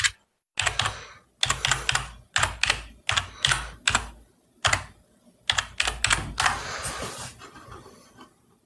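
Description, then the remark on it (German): Clattering bursts of computer keyboard typing as someone enters a website address come in quick clusters of keystrokes with short pauses between, ending in a denser flurry. No one speaks. “Dann, dann gib mal, gib mal ein”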